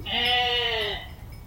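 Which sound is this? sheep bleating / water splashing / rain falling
sheep bleating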